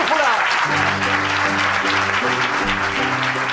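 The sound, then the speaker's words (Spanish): Loud, steady clapping from an audience welcoming the start of a program fills the whole stretch, a dense crackle of many hands, with a sustained musical chord sequence playing underneath. “Pues tenéis que dar un aplauso y bienvenidos a esta edición”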